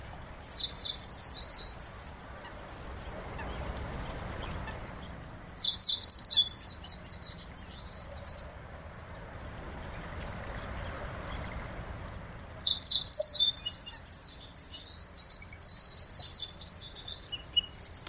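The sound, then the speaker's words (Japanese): A Japanese wagtail sings in spring at Kitaura, Japan, in three bright, rapid bursts of high twittering notes separated by pauses, clear over a low outdoor rumble. “ただここ北浦のセグロ石霊は元気にさえずっていますこの鳴き声を聞く限り命をつないでいくことができると思います”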